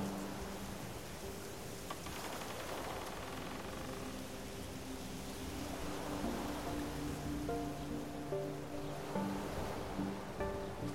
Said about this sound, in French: Le vent qui effleure l'eau du lac rend les reflets de plus en plus flous.